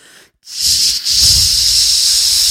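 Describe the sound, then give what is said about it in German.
A voice mimics a crowd of girls screaming on catching sight of someone at the edge of a stage, a loud, breathy hissing whoosh. It starts briefly, pauses for a moment, then holds steady for about two seconds. “so ein einfach so Mädels schreien.”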